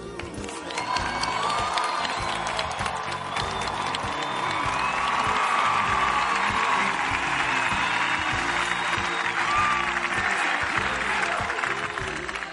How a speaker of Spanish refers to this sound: A él se lo agradecemos de todo corazón y a él que nos convocó hoy aquí, le enviamos un saludo y un fuerte aplauso.